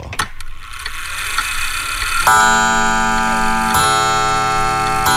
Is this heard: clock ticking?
yes